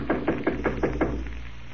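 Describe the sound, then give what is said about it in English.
Six quick, evenly spaced knocks rap on a door in a steady rhythm, moderately loud, then stop, leaving only a faint low background hum with no voices. “Well, perhaps he's in the back room. I'll knock.”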